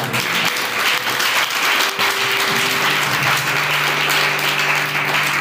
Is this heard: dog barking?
no